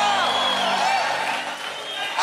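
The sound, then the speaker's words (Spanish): A large audience stands and shouts together at a preacher's call, a dense, sustained roar of many overlapping voices with a few higher whoops rising above it, loud throughout. “¿Quién acredita, fica en pie Da un grito.”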